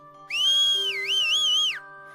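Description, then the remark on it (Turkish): A loud human whistle blown with full breath, held for about a second and a half, its shrill pitch dipping and rising in gentle waves before cutting off, over a faint steady background hum. “Hemen tüm nefesiyle ıslık çalmış.”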